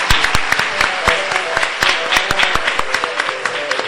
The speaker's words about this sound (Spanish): Un aplauso muchachos para él, por favor, muchas gracias.